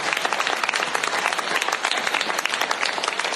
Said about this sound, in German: Vielleicht können wir dafür einen riesengroßen Applaus geben.